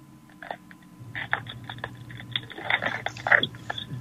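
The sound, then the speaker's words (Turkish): Dry crackling and rustling of paper being crumpled and torn, a dense run of sharp crinkles that grows busier and louder toward the end, with no voices. “İşte orada hemen bu kağıt yırtmayı hatırla. Bugünkü oyunumuzu hatırla. Ben bu kağıdı yırttım”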